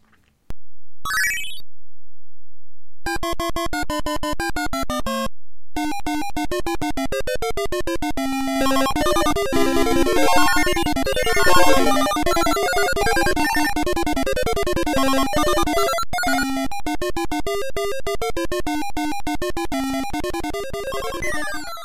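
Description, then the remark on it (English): Chiptune music and sound effects from Mr. Do, a 1982 Universal vertically oriented arcade maze game on a Z80 CPU, play loudly and continuously, with bright synthesized beeping melodies and quick electronic sound effects layered over it, opening with a rising sweep and brief gaps. “It is a vertically oriented maze type game. uses a Z80 CPU, uh, four way stick, and one button to chuck your magic bouncy ball.”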